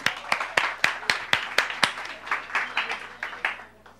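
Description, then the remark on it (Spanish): An audience claps together in a steady, even rhythm, sharp crisp claps about four per second, gradually softening toward the end. “Un aplauso, señores.”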